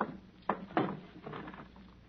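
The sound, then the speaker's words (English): A wooden drawer is pulled open to get orders put inside it, with a couple of knocks followed by a short sliding rattle. The sounds are fairly quiet, with no voices. “My orders. I put them in that drawer. I'll get them.”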